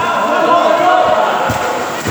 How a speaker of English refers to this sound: And Jack Vaughan has just scored the first goal of the match. Bristol are 1 0 up the cauldron is rocking. There is a huge crowd here today, a huge crowd